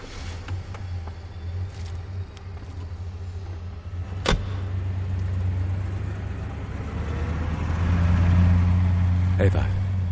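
A car engine hums steadily, a sharp thump cuts through midway, then the motor grows louder as the car, with Diabolik put inside, pulls away, with another brief knock near the end.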